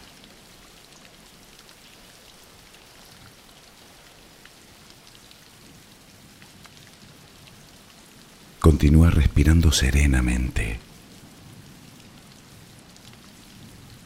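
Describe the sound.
Steady rain falls throughout as background for a guided relaxation for sleep, a soft continuous patter and hiss at low volume, while a calm voice speaks briefly over it partway through.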